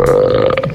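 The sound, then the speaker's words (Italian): A single loud, drawn-out, resonant burp with a steady low droning tone lasting under a second and no talking around it. “Salute! Complimenti!”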